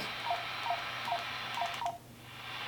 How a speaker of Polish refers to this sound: O, mieliśmy taki dźwięk, radio się przełączyło. No i właśnie sygnał dźwiękowy jest, że tą częstotliwość wpisujemy.